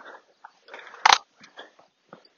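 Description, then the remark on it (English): A dog makes a few short, rough noises, with one sharp, loud burst near the middle standing out among quieter snuffling and growly sounds. “there's a dog there, so I'll just Put her on the lead.”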